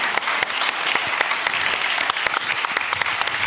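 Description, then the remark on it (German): Steady applause from an audience for a pair of white shoes, dense overlapping claps forming a continuous bright wash of sound that holds at an even, fairly loud level throughout, with no voices standing out. “Bitte Applaus für diese Schuhe, meine Damen ja.”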